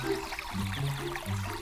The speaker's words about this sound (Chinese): 嗯，听到流水声啦。